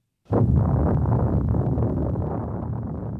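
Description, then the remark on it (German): Original recording of the first atomic bomb explosion, in July 1945 in the New Mexico desert: a sudden loud burst that swells into a continuous deep, rumbling roar, heavy in the low end and holding steady for about three seconds with no voices. “Das ist das Originalgeräusch der ersten Atombombe, die im Juli 1945 in der Wüste von Neumexiko explodiert ist.”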